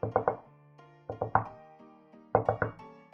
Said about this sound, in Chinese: 第二天早上，明明给一阵敲门的声音弄醒了。